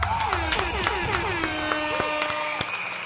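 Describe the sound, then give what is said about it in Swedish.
Steady clapping runs throughout while a small horn sound effect plays: several short honks stepping downward in pitch, then a sustained, brighter tone over the applause. “Och som vanligt då, då vi kör en applåd och en liten, liten tuta på det tack!”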